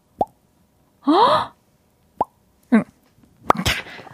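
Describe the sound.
Someone imitates kitchen sink water dripping with their mouth: several hollow, upward-bending plops, irregularly spaced, with a short vocal exclamation and breathy noise in between.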